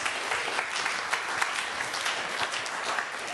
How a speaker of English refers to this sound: Round of applause, yeah?